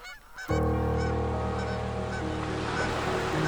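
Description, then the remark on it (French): A dense chorus of loud, trumpeting calls from hundreds of common cranes migrating north very high overhead, overlapping continuously, with strong harmonic honks layered over one another and no voices. “Cette somptueuse transhumance du peuple migrateur emplissait l'air de gloussements et caquetages très haut en altitude, mais parfaitement audibles.”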